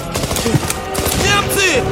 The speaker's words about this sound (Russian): Выстрелом из винтовки связист сражает стоящего на краю окопа пехотинца.